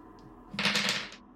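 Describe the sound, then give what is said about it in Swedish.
A short clatter of two dice tumbling and rattling across a hard surface during a game, a quick burst of hard clicks that lasts well under a second before settling, landing on two twos. “Då vill du slå ett slag för uppmärksamhet och eftersom du använder expertis så får du slå två tärningar.”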